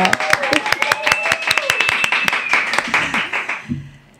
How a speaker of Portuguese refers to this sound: Então, recebo minha convidada com uma salva de palmas